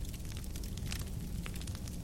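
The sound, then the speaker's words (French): Heavy logs crackle in a large, old stone fireplace open onto the room, with scattered sharp pops and snaps over a steady low roar of a big, wide fire. Moderately loud, with no voices. “Vous voyez les flammes tourbillonner et les lourdes bûches qui alimentent les flammes crépitées.”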